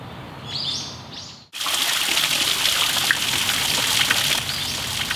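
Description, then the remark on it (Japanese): Birds chirp softly at first, then a steady rush of running water from a shishi-odoshi bamboo fountain in a garden sets in and continues, with birdsong faintly above it; no clear knock stands out. “今朝は庭園に響く獅子おどしの音色それではお聞きください”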